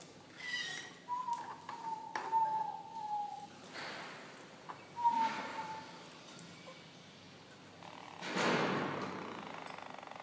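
A stam of Harz canaries at the Alsace regional show in Hottmarsheim sings soft, low, rolling whistled tones in drawn-out phrases with brief pauses between, over faint background noise and a few dull knocks.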